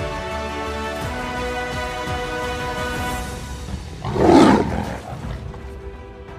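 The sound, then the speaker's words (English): A single deep, loud lion's roar swells up and fades over about a second, rising out of a steady, sustained musical drone that continues underneath. “I love that lion's roar.”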